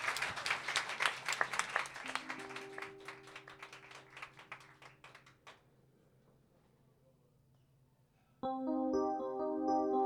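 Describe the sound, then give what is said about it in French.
Audience applause for a band playing live on Radio Campus Paris, a dense patter of many hands clapping for about five seconds, thinning out into scattered claps and fading, before a sustained musical tone with harmonics begins near the end. “Vous pouvez vous pouvez les applaudir en vrai, hein, n'hésitez pas.”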